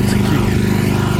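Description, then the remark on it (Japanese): A snowblower engine drones steadily and loudly in Nagano City during light snowfall, with about 8.5 cm of powder snow on the ground; a continuous low rumbling hum with no pauses and no voices. “いろんなところでねこう駐車場除雪車、えー、だったり除雪機だったりですね、えー、これも除雪機”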